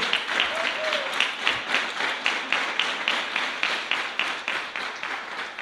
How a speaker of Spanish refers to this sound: Denle un aplauso a Él.